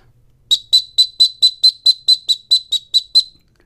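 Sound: dog training whistle signal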